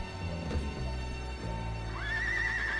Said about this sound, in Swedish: Och så kommer hästen.